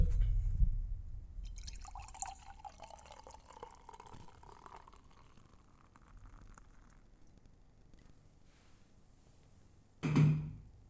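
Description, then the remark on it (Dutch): Port is poured close to a microphone into a glass, a bubbling, trickling stream lasting several seconds with dripping, fading out, followed by a brief louder thump near the end. No one speaks. “Ik ga hem gewoon dicht bij de microfoon inschenken.”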